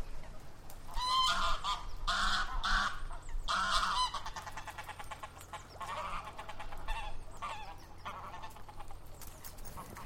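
Copenhagen geese honk loudly in a quick run of harsh, nasal calls, followed by a quieter stretch of softer honking and chatter over a steady low rumble.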